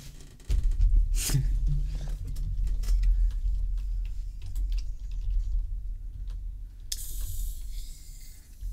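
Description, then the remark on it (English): Someone types on a computer keyboard, a quick irregular run of light key clicks continuing for several seconds over a low background rumble, with no one talking. “I'll type out what I'm trying to say because I just don't.”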